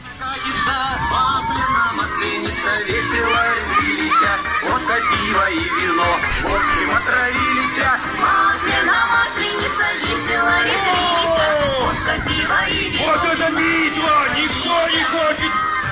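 A loud, unbroken stretch of a song playing at a children's party, with energetic voices singing and shouting along over it for the whole time.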